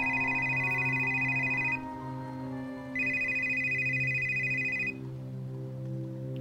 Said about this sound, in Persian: تو همین فکر بودم که موبایلم زنگ خورد